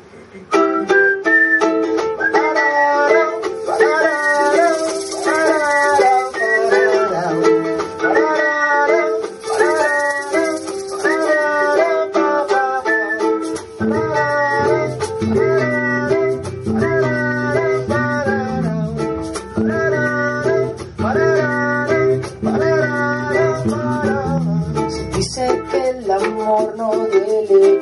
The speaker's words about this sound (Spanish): tema Mi Juego, tema inédito hecho por mi persona y mi banda